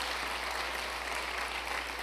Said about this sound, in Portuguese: A gente pode dar uma salva de palmas para ele? Glória a Deus.